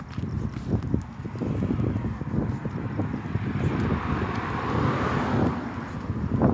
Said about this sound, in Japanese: 車道路なので車が結構ひっきりなしに通っているのですが。